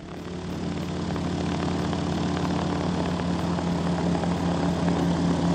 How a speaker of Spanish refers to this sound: Y este es el sonido de un avión tripulado de forma remota para su detección los desarrollos tecnológicos son muy parecidos a los de detección de cualquier tipo de aeroplano.